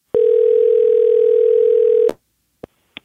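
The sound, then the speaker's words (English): A loud, steady telephone dial tone holds one even pitch for about two seconds as a call is placed to a friend, then cuts off, followed by a few short, faint clicks on the line. No one speaks. “So now it's time for a segment of the podcast called Phone a Friend, where we do just that phone a friend.”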